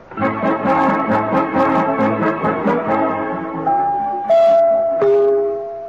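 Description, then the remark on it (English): A short, loud orchestral overture opens a Christmas radio play, Santa Claus Refuses to Mediate or Jingle Bells Shall Not Ring Tonight, with rhythmic, pulsing chords, then settles into a few long held notes stepping downward to a close. No voices are heard. “Overture, Maestro.”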